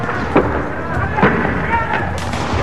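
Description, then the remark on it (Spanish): Police fire tear gas canisters at rioting students at a street barricade in the city of Córdoba, a noisy crowd scene with several sharp pops and thuds spaced a second or so apart over a constant roar of voices and commotion. “Usan disparos de gases lacrimógenos.”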